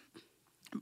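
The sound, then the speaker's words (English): A single quick sneeze, a short breathy intake followed by a sharp burst, fairly soft and heard on its own without any talking. “I uh, bless you.”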